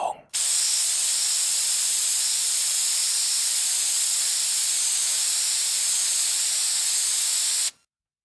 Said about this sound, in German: Haarspray. Ah. Genau. Eine Dose Haarspray. Zwar keine ganze Dose, aber immerhin.